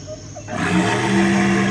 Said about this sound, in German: Aber ich glaube, ich höre dann Brüllen. Ihr auch?